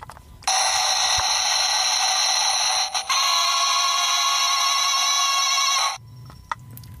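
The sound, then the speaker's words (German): A cheap plastic toy sound machine's weapon sound effect: a loud, harsh electronic buzzing tone that holds steady for about five seconds, with a brief stutter midway, then cuts off abruptly. “ich habe so eine Soundmaschine so aus Plastik für ah, 99 Cent”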